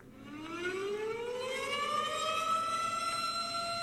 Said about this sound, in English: Weather alert.